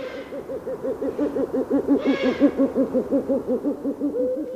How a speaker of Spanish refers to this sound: Por cierto, eh, un ave rapaz significa un ave de presa y el búho real es la más grande de las rapaces nocturnas europeas.